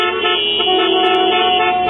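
Several car horns blare at once in a loud, sustained overlapping chorus, like a gridlocked street. The honking runs without a break for the whole moment, harsh, with no talking.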